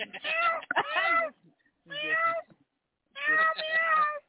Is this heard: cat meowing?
yes